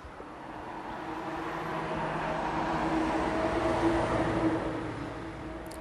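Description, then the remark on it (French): A large truck roars past, its heavy engine rumble and tire noise swelling to a peak midway and then easing off as it moves away. No one speaks. “Là, c'est un énorme camion qui vient de passer.”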